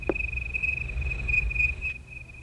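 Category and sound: insect, cricket chirping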